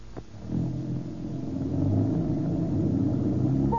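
A car engine starts up and runs, its low rumble building steadily as the vehicle pulls away, loud with no talking over it.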